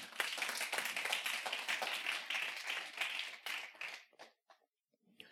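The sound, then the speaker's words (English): An audience bursts into applause for God during a morning service, a dense, steady wash of many hands clapping for about four seconds before thinning to a few scattered claps and falling silent. “Can we give God a round of applause this morning?”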